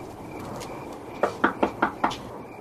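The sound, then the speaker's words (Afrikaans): Five sharp knocks on a door in a quick, even rhythm, clear over a quiet hum, with no one speaking. “Ai, skielik klop jy al lank.”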